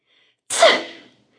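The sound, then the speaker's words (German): A single sharp sneeze bursts out suddenly after near silence, loud, with a bright breathy spray that fades over about half a second. “Da nieste das etwas und kleine Wolken stoben aus dem großen Knäuel.”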